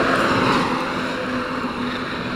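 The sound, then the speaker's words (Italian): A loud, steady engine roar from a truck passing by on the street, with a deep rumble and a constant droning hum filling the whole stretch and no voices. “Facciamo passare il camion.”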